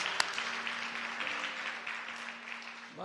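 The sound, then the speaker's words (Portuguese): A church audience applauds for Jesus Christ in a steady, dense wash of clapping that holds at an even level, with a low sustained hum running underneath throughout. “Dê um aplauso àquele que nos mantém vivos.”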